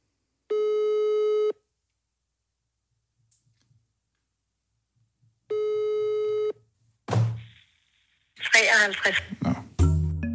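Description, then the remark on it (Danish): A phone call to a witch rings out with no answer: two steady electronic ringback tones, each about a second long and several seconds apart, followed by someone talking. “Så nu vil jeg lige prøve at ringe til en heks og høre, om hun selv kalder sig heks.”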